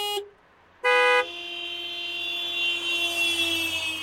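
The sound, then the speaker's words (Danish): Two loud car horn honks, a quick short toot and then a longer blast, followed by a steady tonal hum that lingers under faint background noise. “GF Forsikring præsenterer Pyt i stedet for dyt.”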